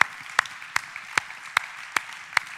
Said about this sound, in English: I just want to say, why don't you give applause to our family who did that?